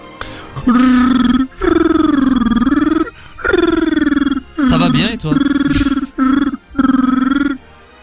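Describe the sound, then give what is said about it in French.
A voice speaks in Wookiee, the main language of the Star Wars Holiday Special: about six loud, drawn-out throaty growls and howls in quick succession with short breaths between, rising and falling in pitch. “Je viens de vous parler en Wookiee”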